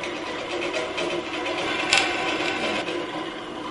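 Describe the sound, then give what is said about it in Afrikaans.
A small drill whirs steadily as it bores small holes into metal, a continuous high buzzing motor sound, with a brief sharper bite about halfway through. No one speaks. “Die gaatjies hoor jy ook nou.”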